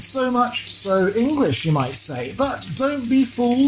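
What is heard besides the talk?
sausages sizzling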